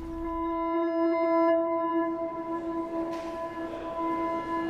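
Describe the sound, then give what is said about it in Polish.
A steady, piercing tonal whine, like a train horn or squealing brakes, holds for several seconds over a low rumble of railway station noise, with a brief hiss rising near the end. “Z jednego z wagonów wysiadło kilka osób w towarzystwie całego stada psów i kotów.”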